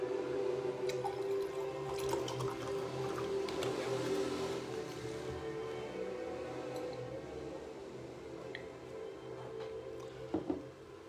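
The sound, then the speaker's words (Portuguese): Water pours steadily into a glass for several seconds, a continuous splashing trickle that tapers off, followed by a couple of soft clinks near the end. No one speaks. “Deixa eu encher aqui meu copo com água.”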